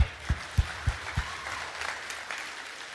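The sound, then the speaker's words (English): An audience bursts into steady clapping that fills the room, with four evenly spaced low thumps early on beneath the dense patter, then the applause carries on evenly. “Clap loud.”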